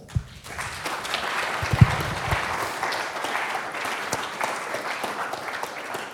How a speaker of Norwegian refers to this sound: Tusen takk for at dere er med og deler. Eh, skal vi gi dem en applaus?